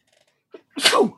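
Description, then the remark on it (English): A single sharp sneeze, preceded by a brief quick inhale, bursting loudly with a broad hissy spray before trailing off into quiet. “Bless you.”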